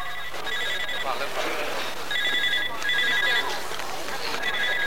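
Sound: telephone ringing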